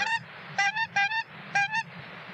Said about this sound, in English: I bet you it's a honker. I, bet you it's a honker flying backwards to its home over at Fort Riley. Huh? huh? Gotta be. Could, it couldn't be a whooper.